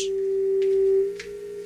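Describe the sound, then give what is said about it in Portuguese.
A steady, unbroken telephone tone hums on its own after a dropped call to federal deputy Efraim Filho of the Democratas on Rádio Band News FM, with a couple of faint clicks breaking in along the way. “Caiu a linha? Caiu a ligação? Perdemos o contato?”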